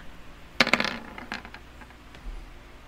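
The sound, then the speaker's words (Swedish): Several ten-sided dice clatter onto a table in a quick burst of sharp, bright clicks that settle within a second, followed by quiet room tone. “Vi får se vad tärningarna yes. säger.”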